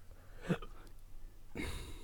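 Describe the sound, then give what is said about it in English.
A person hiccups, a short, sharp catch of breath, followed about a second later by another breathy burst, against a quiet background. “Excuse me, I have developed the hiccups.”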